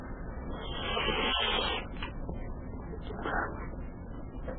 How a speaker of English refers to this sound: I don't even know how to eat soup without making some sort of a noise. Oh, it's too hot.